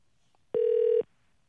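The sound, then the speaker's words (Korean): A single steady electronic telephone tone sounds for about half a second, loud and clear against near silence, with no voices, as a radio DJ calls a listener for a phone-dating segment. “2559님한테 한번 전화 한번 걸어보겠습니다.”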